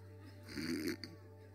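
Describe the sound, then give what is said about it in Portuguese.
A voice imitates hawking up phlegm from the chest: one harsh, raspy, guttural rasp about half a second long, ending in a brief click, fairly quiet, with no talking. “E … começa a limpar a expectoração do peito.”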